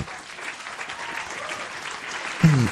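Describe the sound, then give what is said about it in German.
A burst of clapping from a small group fills the moment, steady, before a voice cuts in briefly at the very end. “Äh, Bravo, äh, Applaus!”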